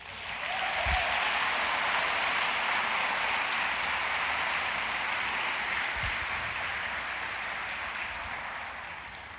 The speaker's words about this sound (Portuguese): Aplauda Jesus.